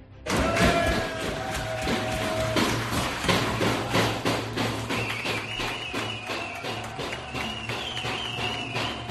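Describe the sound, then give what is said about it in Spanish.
Pol Espargaró's team celebrates his third-place finish in their pit box. Steady, rhythmic drum beats pound over a noisy, cheering crowd, while a few high, sustained whistle-like tones ring out above the din. “acabó tercero Paul Espargaró, así se celebraba en su box”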